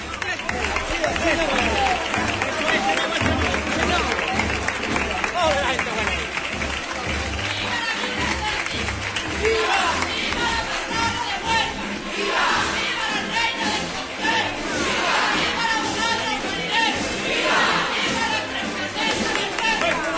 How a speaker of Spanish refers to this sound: Eso, la gente buena, sí señor con esta gran ovación de todos los asistentes.